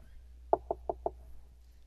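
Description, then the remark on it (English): Four light, quick taps on a door in an even rhythm, clear, with quiet before and after and no voices. “Maybe you went to the Lord and and he, he equates it with tapping on the door and”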